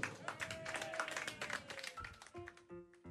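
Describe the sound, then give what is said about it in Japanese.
A crowd breaks into dense, steady applause for a band at an event for adult bands, lasting a couple of seconds, the clapping then thinning out as some tonal sounds and voices come through. “もう一度大きな拍手を”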